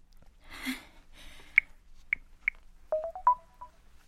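A phone number is dialed: a brief rustle, then a string of short, clear keypad beeps at varying pitches tapped in an uneven rhythm, with the last few coming in a quick cluster. No one speaks.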